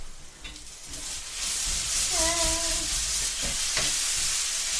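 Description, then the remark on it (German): Food sizzles steadily in a frying pan while falafel crumble is being made, a bright crackling hiss that swells after the first second and keeps going, with a short tonal squeak and a few clinks partway through. “Und es brutzelt weiter.”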